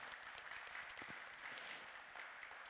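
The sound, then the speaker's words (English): A crowd applauds steadily to welcome those watching at home, a dense wash of many hands clapping at once that holds fairly even throughout, with no voices breaking through. “Um, can we again say just uh, welcome to those who are watching at home with a little, uh, a little clap just to show them uh, that we're here, united together, even though we're not present.”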